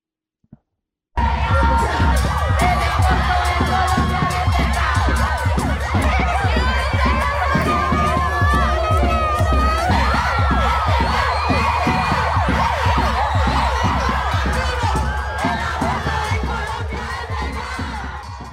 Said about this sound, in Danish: og jeg kan jo bare lige sige, at der var masser af mennesker på gaden i, i Bogotá, det lød cirka sådan her, da, da loven den blev, øh, blev vedtaget.